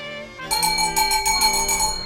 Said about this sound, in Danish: Den slags betingede reflekser, som den russiske psykolog Ivan Pavlov var blevet verdensberømt på at påvise, ved at lade en klokke lyde hver gang en hund fik mad.